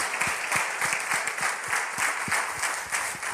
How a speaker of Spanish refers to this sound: Vamos, denle un fuerte aplauso al Come Señor. On, give the Lord a strong hand clap.